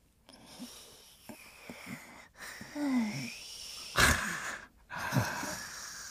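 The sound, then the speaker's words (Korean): Soft, slow breathing of a woman sleeping soundly, with faint wheezy inhales and a couple of louder airy exhales near the end, no talking. “새끈새끈 애기처럼 자네.”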